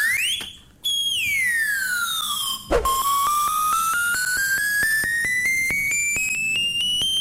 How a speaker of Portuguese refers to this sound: Uh, bom, o Chad toca aqui um medley de músicas de 2015 num Melody Pop. Vamos lá ouvir isto.